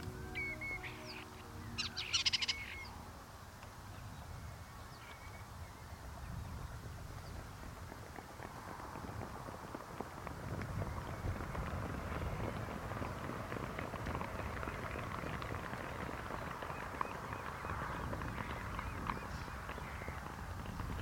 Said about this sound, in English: That was the sound of a load of geese landing on the loch.